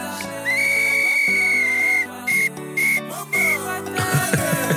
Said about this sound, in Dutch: Het is een gele fluit. En dan gaat hij hem officieel gaat hij hem eh, affluiten.